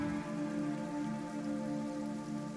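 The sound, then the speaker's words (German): Steady rain falls, with drops pattering densely on surfaces in a continuous hiss. No one speaks; the downpour stays even throughout. “Aus dem Himmel tropft der Regen und schlägt auf die überhitzten Körper ein”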